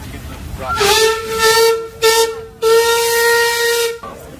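A steam locomotive whistle on the Sibiu Agnita Railway in Romania, at a station during the September Steam Gala with crowds in sunshine, gives three loud, steady blasts at a mid pitch, the first long, a short one, then another long one, each wrapped in a rushing hiss of steam.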